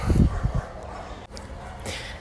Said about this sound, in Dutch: Mijn hond ging even mee blaffen met de rest van de groep uh, blaffende honden. Dus dan moest even eh, gestopt worden.